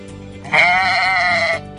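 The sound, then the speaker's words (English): A single drawn-out sheep bleat, loud, lasting about a second with a wavering, nasal tone, heard on its own without any talking. “He was watching some sheep herders using dogs to herd sheep”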